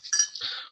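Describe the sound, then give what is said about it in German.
Glasses of beer, one holding Flensburger Dunkel, clink together in a toast, a bright chink followed quickly by a second ringing touch, with no voices during the brief moment. “Prost.”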